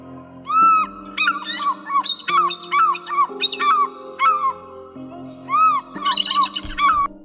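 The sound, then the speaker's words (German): A bald eagle's high, chittering call repeats in quick bursts of squeaky piping notes, loud, over a steady sustained musical drone. “Ja, auch immer schön, den Weißkopf Seealer zu hören.”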